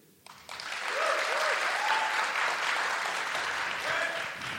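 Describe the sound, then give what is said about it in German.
A live audience, voting by applause on the question of milk or cocoa, bursts into applause for milk after a brief quiet start, sustained, dense clapping for several seconds, with a few whoops and cheers rising above it. “Also einmal, wir, wir, wir machen es mit Applausometer.”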